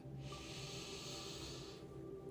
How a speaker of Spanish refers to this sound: Ahora realiza una respiración profunda. Inhala